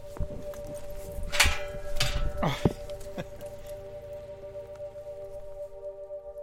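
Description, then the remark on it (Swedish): Prison gates open by remote control after a visitor's ID is checked through a camera: a few sharp metallic clunks and scrapes over a steady mechanical hum, then the hum carries on alone. Moderate volume, with no voices. “Och när den kontrollerats genom kameralinsen öppnas grindarna på distans.”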